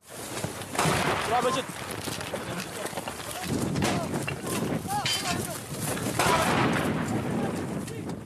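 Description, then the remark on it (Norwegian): Loud, continuous combat noise with repeated sharp gunshot cracks and bursts over a dense rumble, while men's voices shout throughout: Syrian government army soldiers in combat against IS in Syria. “Vi hører lyden av syriske soldater fra regjeringshæren i kamp mot IS.”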